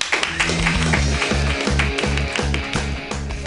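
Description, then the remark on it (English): An audience claps steadily throughout, a dense crackle of many hands over a loud, rhythmic bass-heavy music track pulsing at a regular beat. “So you guys clap your hands wildly.”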